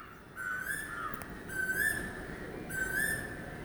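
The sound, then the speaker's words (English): Birds sing in the morning in India, where there is no human disturbance or traffic: three clear, whistled phrases, each a bright rising note with a slight warble, separated by short pauses over a soft, steady background hiss. No one speaks. “I'm waking up to bird song every single morning.”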